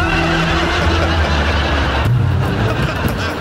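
A car approaches with its lights visible, a loud, steady engine roar and tires squealing and skidding across the road, filling the whole stretch with no voices.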